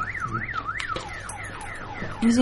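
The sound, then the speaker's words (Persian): A car alarm wails in a steady up-and-down siren pattern, its tone sweeping repeatedly between higher and lower pitches, with a low background hum beneath it. “اینجا برو ببین کی داره به ماشین”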